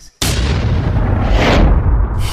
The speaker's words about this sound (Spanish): Tiempo después, quizás en el 55, desde la terraza de mi casa, escuché unos disparos aislados y lejanos y sonaban así.